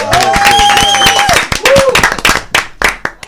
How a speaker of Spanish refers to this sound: Bueno, señores, eh, estamos felices de recibir aquí con un fortísimo aplauso. Vamos a darle aplauso.